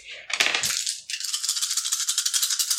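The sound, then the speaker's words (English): Dice rolling during a tabletop role-playing game: a noisy clatter at the start, then a steady stream of rapid, bright rattling clicks for about two seconds, fairly loud, with no voices. “So I managed to find two more dice just in case.”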